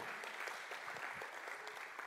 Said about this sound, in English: Listen, church, I don't want that to just be like a little hand clap.